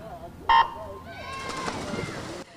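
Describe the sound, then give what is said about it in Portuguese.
A swimming race's starting whistle at the pool of Escola Secundária Estrela Vermelha in Maputo, at the fifth Taça Frederico Santos: a short, sharp, loud blast, then a longer, buzzy, tonal sound over murmuring voices and background noise. “44 anos depois, o suar do apito a voz do comando e os cronômetros indicam o regresso das competições na piscina da Escola Secundária Estrela Vermelha, na cidade de Maputo.”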